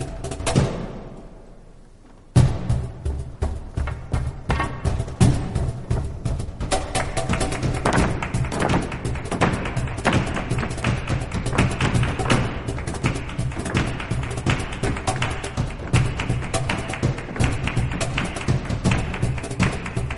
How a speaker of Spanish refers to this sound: Bueno, ese taconeo es de Arcángel, eh, protagonista eh, de esta ópera, con dirección musical de Pablo Eras Casado.